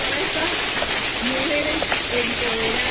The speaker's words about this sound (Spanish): ¡Wow! Producción, por favor, vamos con estos aplausos